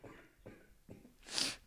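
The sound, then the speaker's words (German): Someone coughs in a short fit: three quick, muffled bursts followed by a sharper, hissing final cough. There is no talking. “Ich habe gehustet.”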